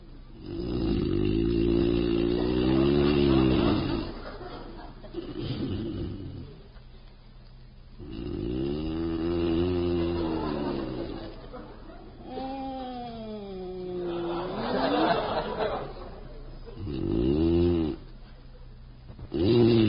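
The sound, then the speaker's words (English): A man snores loudly in bed in several long, rasping bouts, each drawn-out breath droning and wavering in pitch like a groan, separated by brief pauses, with no talking. “poor husband …, insomniac extraordinary, engages in another grueling bout with the dread affliction that borders on madness, lethargica profundus”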